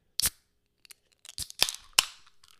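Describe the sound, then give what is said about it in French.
Beer cans cracked open: a few sharp metallic snaps of pull tabs, the later ones trailing off into a soft fizzing hiss, with faint clicks between and no voices. “Je fais exprès pour les tirer, on entend vraiment bien le petit.”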